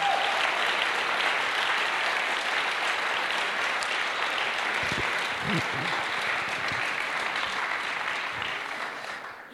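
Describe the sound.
Sustained audience applause from a theatre crowd for the theatre team after the play Grab mit Aussicht, a dense steady wash of many hands clapping that holds for several seconds before gradually fading, with a few faint voices mixed in.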